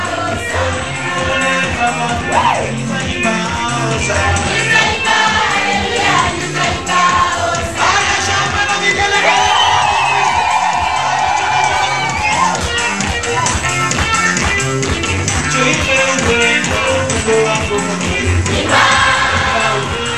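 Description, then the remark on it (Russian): A large crowd of children shouting and cheering together in praise at a clay shed used as a church, faces at every window, a loud, dense wall of overlapping voices that keeps going without a break, with rhythmic surges and swells throughout. “Вот эти мордашки детей, в окна, во все окна этого сарая под названием церковь, глиняного такого, э, во всех окнах детвора. Вот этот звук поднимите, это прославление.”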